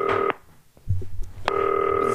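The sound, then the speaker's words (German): A telephone ringing tone as a FaceTime call to Finn Bartels connects: a steady electronic tone cuts off, a brief quiet gap with faint low thumps follows, then the same even tone starts again and holds. “Es klingelt.”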